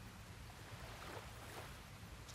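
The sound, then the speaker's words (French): Ocean waves washing onto a beach in a steady, soft roar of surf, fairly quiet and continuous, with a low rumble beneath and no voices. “Laissez-vous bercer par le bruit de cet océan en mouvement qui vous rappelle comment vous sentez quand vous êtes près de la mer, en connexion avec ce géant d'eau salée puissant qui nous remplit d'énergie.”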